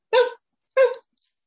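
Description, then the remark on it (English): A young boy's voice imitates a dog barking when asked what a doggy says: two short, loud "woof"-like yelps spaced about half a second apart, with silence after. “Um, he likes doggies. What does a doggy say?”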